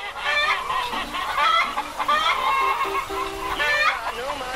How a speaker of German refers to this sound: die Rhode Island Reds. Die haben besonders lange Beine. Rhode Island Reds? Ja, die da. Oh, die gefallen mir. Diese Rhode Island Reds sind diese gut.